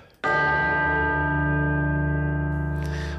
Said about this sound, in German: Okay, dann schlagen wir die nächste Glocke.